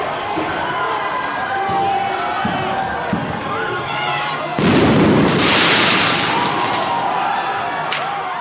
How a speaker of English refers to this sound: Broken windows at the Atlanta Police Foundation headquarters. The people, the people funding Cop City. Firework thrown.